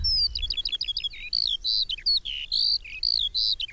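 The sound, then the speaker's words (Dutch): A skylark hanging high in the air sings a continuous, rapid stream of high, twittering warbles and trills with no pauses, heard alone overhead, with a faint low rumble underneath. “De leeuwerik hangt in de lucht.”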